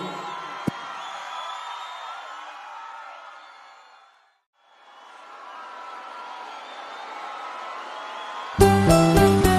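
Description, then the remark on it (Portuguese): A live crowd cheers and whoops loudly, the roar fading briefly to near silence midway before swelling back, then music with a steady beat cuts in at the end. “Façam muito barulho aí, gente!”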